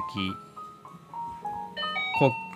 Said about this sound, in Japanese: チャイムがうるさすぎる